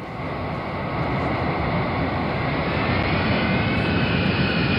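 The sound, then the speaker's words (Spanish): A Boeing 747 jet airplane's engines roar loudly and steadily as it comes in to land, a dense rumble with a whining hiss on top that holds for several seconds with no voices. “Bueno, no sé si tenemos el, el jet privado de volea, el Boeing 747.”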